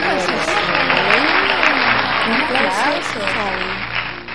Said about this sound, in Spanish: Mira tú, un aplauso.